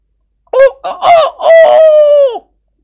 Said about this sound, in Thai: เจ้าเป็ดเหมือนกับฟังภาษาคนรู้เรื่อง มันตีปีกพับ ๆ แล้วยืดคอขึ้นขันเสียงเจ้ยแจ้วราวกับไก่อู